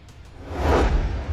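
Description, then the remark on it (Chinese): A single whoosh from a jet of flame shooting from a character's backside as he rockets over a wall, a breathy rushing sound with a low roar underneath that swells to a peak midway and then eases off slightly. No voices. “只见他屁股上喷出了一团火焰，嗖的一下就窜了过去。”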